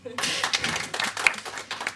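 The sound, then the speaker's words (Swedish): A short burst of applause during the closing credits of a radio programme, a dense patter of hand claps that starts abruptly and carries on steadily for about two seconds at a fairly loud level. “Applåd!”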